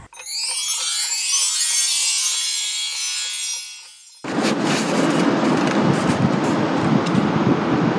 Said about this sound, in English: Oh, that wasn't me, that was a train. I'm back at Weybridge Station.